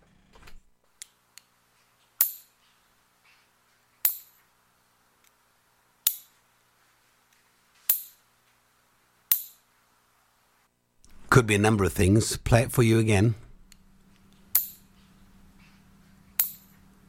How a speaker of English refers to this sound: You might think it's a pen clicking, but it's not. It's clipping your nails.